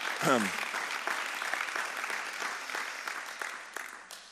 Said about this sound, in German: So lasst, lasst mal euer Pastoren-Ehepaar einen fetten Applaus von euch hören. Sie sind großartig.